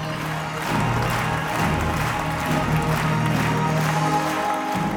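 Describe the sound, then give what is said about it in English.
Sustained, dense applause from a large audience as circus performers take a bow, steady and loud throughout, with a low hum of music or room tone underneath. “As the performers take a bow to rapturous applause, they unfurl a Ukrainian flag.”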